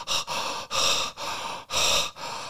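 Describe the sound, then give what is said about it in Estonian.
Rapid, forceful breathing, about five deep in-and-out breaths in quick succession with brief pauses between, loud and airy with no talking, a demonstration of intense Wim Hof method breathing. “sihukest hingamist ja siis on see, et pärast siis kolmekümmend sekundit või kolmkümmend väljahingamist, sissehingamist hoiad hinge kinni”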